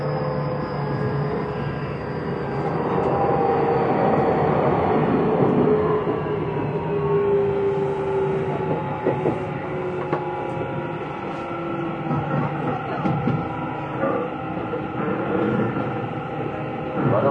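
A Tokyu 6000 series commuter train running steadily between Azamino and Oimachi, with continuous motor whine and shifting tonal hums over a broad rumble, punctuated by faint rail clicks and occasional rattles.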